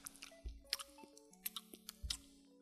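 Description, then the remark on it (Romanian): A voice imitates the wet lip smacking someone makes while eating with a full mouth or after swallowing, a quick run of moist clicks and squishy pops repeated several times, with a faint tonal hum in the background. “Sau chiar dacă ai înghițit, după aia faci așa.”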